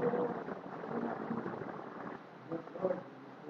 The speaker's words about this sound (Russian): Ничего не получится, это дождь, это хорошо.